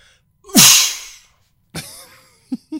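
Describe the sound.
A voice imitates the brake of the Nessie roller coaster with a loud hissing burst that fades out, then a shorter rasping hiss with a squeal, followed by two quick low vocal bumps.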